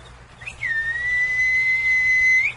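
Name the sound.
person whistling a call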